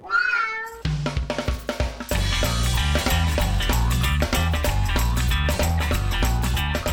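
A single drawn-out cat meow sounds clear at the start, then loud blues band music with drums and bass kicks in and plays steadily to the end.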